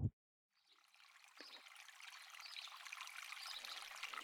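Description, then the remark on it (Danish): Water trickles steadily in a small brook next to Troldeskoven, a soft continuous babbling that fades in after a brief click and grows gradually fuller and louder, with no voices. “Det her er den lille bæk, som mine brødre og jeg plejer at lege ved.”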